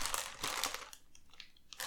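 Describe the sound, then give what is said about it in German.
Crinkling of the wrapper of a bag of vegetarian Grünohrhasen snacks: bright, crackly rustling in irregular bursts, loudest at the start, easing into softer scattered crackles before a final flurry. No one speaks. “Alter, was machst du da? Jetzt knisterst du rum.”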